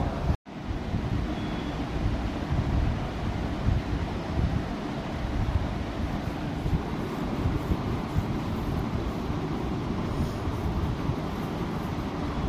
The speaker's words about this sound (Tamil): சுழன்று சுழன்று அடித்த காற்றின் சத்தமும் அலைகளின் பேரொளியும் இடையிடையே கேட்ட இடி முழக்கமும்